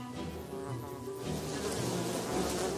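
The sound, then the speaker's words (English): A dense, steady buzzing of many bees as a hive frame is pulled out to inspect them, a continuous droning hum that grows slightly louder toward the end, with no voices. “So I just pull this out to inspect the bees?”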